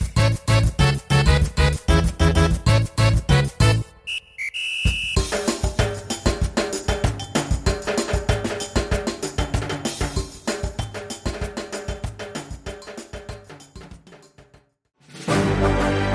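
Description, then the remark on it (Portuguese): Upbeat instrumental segment-transition music with a driving, punchy beat plays loudly on its own, briefly dropping out near the start and again near the end before surging back. “Aumenta a música aí, editor. Safado, troca o bloco logo.”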